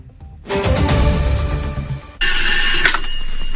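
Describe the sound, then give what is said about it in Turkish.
In a Cüneyt Arkın film scene, a telephone rings loudly and steadily in the second half as his character calls the mafia bosses, a bright, buzzing electronic trill that follows a dense, rumbling burst of sound in the first half. “O da her şeyden sıyrılıp onlara telefon açıyor.”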